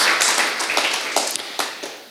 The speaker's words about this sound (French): Et c'est vrai que si on s'arrête ici, ouais, on peut applaudir, c'est vrai, on peut applaudir, merci.